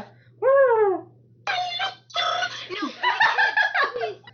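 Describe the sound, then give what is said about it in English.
A person imitates a turkey, starting with a single rising-and-falling yelp, then breaking into a rapid, warbling gobble that lasts a few seconds, fairly loud. “I can make turkey sounds. It's like a.”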